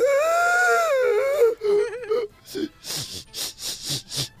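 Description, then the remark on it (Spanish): A voice imitates a woman crying: a long, wavering high wail that breaks into shorter quavering sobs, then several breathy, sniffling gasps in a steady rhythm, fairly loud. “Así lloran algunas mujeres, ¿no?”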